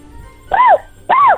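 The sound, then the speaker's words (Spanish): A voice mimics a puppy's bark with two short, high-pitched yips about half a second apart, loud, each with a rising-then-falling arc. “¿puedes hacer el ruido de un perrito?”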